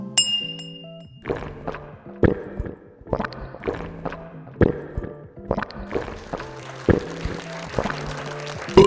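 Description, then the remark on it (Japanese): Glasses of Shine Muscat sparkling wine, made at the foot of Mount Fuji, clink together in a toast, a quick series of bright, ringing taps repeating every half second or so, clear with a faint tonal ring lingering between hits. “本日の乾杯酒は富士山のふもと新規収納者のサトゥーが作ったシャインマスカットからできております甘さすっきり喉越し爽やかなシャインマスカットのスパークリングワインでございますそれでは乾杯”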